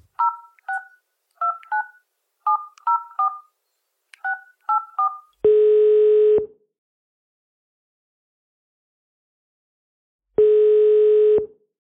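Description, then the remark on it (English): A quick run of touch-tone keypad beeps, paired tones in uneven bursts, followed by two long, loud ringback tones separated by a few seconds of silence. “make the call.”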